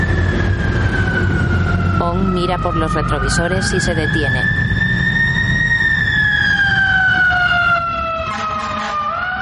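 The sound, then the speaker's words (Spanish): A loud, wailing police siren from a police car passing by on a street sweeps slowly up and down in pitch throughout, with a brief burst of rapid yelping tones partway through, while a voice speaks over it. “un coche de policía pasa junto a ellos.”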